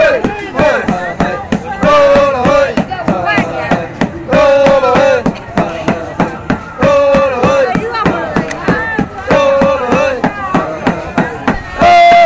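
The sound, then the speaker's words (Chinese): Two strong men at a candy workshop rhythmically pound peanut candy with heavy thuds while chanting a call-and-response work cry, strong steady beats repeating through the whole clip alongside loud voiced shouts. “刚才大家听到的一个口号就是做花生糖，两个壮男在这儿砸砸糖。”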